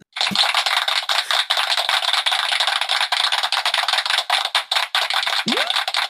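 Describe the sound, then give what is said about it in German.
An inserted applause sound effect: a burst of crowd applause, many hands clapping in a dense, crackling wash that holds steady for about six seconds before stopping abruptly, with no voices. “Soll ich mal so einen Klatscher einfügen?”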